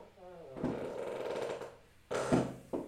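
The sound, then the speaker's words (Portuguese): An office chair creaks and groans as someone stretches: a long, strained creak with a rough, grinding texture, then two shorter, sharper creaks after a brief pause. “Prontos, isto é o barulho da minha cadeira quando eu me espreguiço.”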